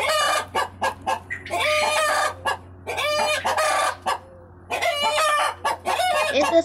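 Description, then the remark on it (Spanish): The family's own hens cluck in a busy, overlapping chorus while one of the roosters they are raising crows loudly and clearly over a steady low hum, with no one talking. “las gallinas que tengo y los gallos que estamos criando con mi tata.”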